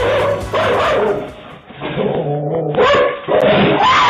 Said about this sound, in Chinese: 她某一天早上呢就听到狗狗狂叫，她本来以为猫又来翻垃圾桶了，没想到上前查看，竟然来的是一只熊